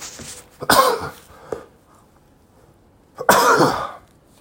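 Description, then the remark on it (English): Two harsh, loud coughs, the first followed by a short rough catch, then a pause before a second strong, raspy cough. No talking. “Felt that coming on. I didn't want to.”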